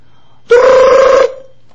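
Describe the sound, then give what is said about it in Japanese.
A single short, buzzy trill, likely a voice imitating a telephone ringing with a rolled, fluttering tone, loud, lasting under a second. “でも、電話はずっと鳴ってる。”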